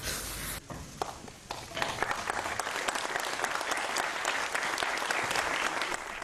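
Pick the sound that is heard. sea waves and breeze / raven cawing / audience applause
audience applause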